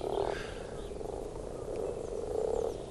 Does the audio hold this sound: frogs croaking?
yes